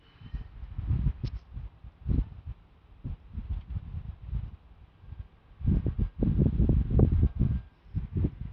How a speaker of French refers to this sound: on n'entend rien d'autre que le silence et le vent. et la cathédrale de Strasbourg.